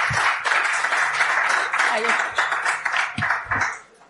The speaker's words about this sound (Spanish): Un aplauso fuerte